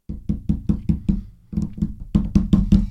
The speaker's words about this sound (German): Auch hier gerade ein guter Test mit dem Klopfen. Ich hau mal auf den Tisch.